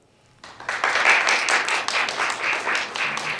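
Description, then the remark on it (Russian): A crowd bursts into applause after a brief quiet moment, many hands clapping in a dense, steady patter that holds fairly loud and even until the end. “А теперь давайте похлопаем, кто видел вот этого друга.”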